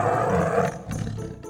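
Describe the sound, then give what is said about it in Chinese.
A deep, rumbling big-cat roar from an especially huge cat on a rooftop, roaring instead of meowing, loud and continuous for about a second and a half, with a second throaty surge partway through; no talking. “奇怪了，这只特别巨大的猫，声音是烧虾吗？呃呃呃，怎么不是喵喵喵喵喵？这个声音也太怪了吧！”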